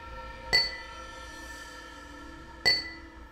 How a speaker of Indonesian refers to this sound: Ketika sedang berjalan, tiba-tiba saja saya berhenti di depan dapur kantor. Bukan tanpa sebab, bukan cari-cari masalah. Akan tetapi karena saya mendengar dengan samar suara gelas yang berbenturan dengan suara sendok.